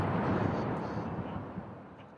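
The first cannon shot of a royal gun salute: a deep, loud boom that breaks out at once and trails off into a long, rolling low rumble fading over about two seconds.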